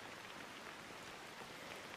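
Steady rainfall patters evenly and continuously, a soft, dense hiss of drops hitting surfaces with no pauses, fairly quiet, with no voices present.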